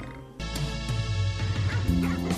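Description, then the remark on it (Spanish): A dog barks repeatedly in a quick series of loud woofs, with a couple of higher yipping notes mixed in and no one speaking. “Un saludo para la gente que tiene perro y que les cuida bastante bien la casa”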